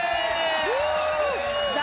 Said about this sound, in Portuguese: Agora que a gente apresentou o que não presta, Isso, a gente apresenta agora a pessoa linda, maravilhosa do nosso elenco, nossa atriz querida Maria Clara Gueiro. Uma salva de palmas!